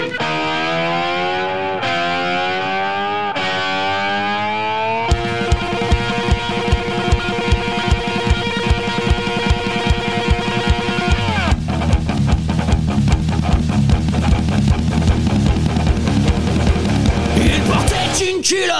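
A loud rock cover opens with a few sustained, bending distorted guitar notes, then pounding drums kick in with a steady driving beat, and the full band thickens partway through.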